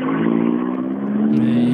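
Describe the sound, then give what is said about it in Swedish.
A rally car's engine roars steadily past, a loud sustained drone with a strong harmonic hum that shifts slightly in pitch near the end. “Här kommer en bil vi känner igen också.”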